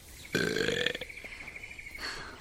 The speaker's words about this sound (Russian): А что, это комплимент. Отрыжка лучше изжоги, правда?